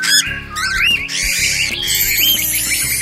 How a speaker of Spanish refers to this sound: ¡Oh! Y en los cielos se vio a los pájaros, guacamayos, pelícanos, el águila, el cóndor y mucho más.